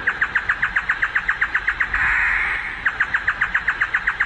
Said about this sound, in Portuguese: A exemplo do tico-tico, do coleiro, do bentivi, da rolinha, do trinca-ferro e do chorró, aquele pássaro que tem um canto que, de tão lindo, chega a ser poético. Confira aí.